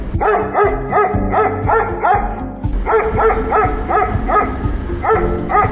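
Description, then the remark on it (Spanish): Several small dogs that have slipped into a booth bark and yip repeatedly in quick bursts, loud, with overlapping high-pitched barks filling the scene and no one speaking. “Perdona, es que se acaban de colar unos perritos en la cabina.”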